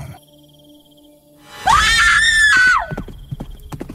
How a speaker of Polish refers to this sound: Kobiecy krzyk przyszedł niespodziewanie. Zaraz po nim mężczyzna usłyszał tentent kopyt.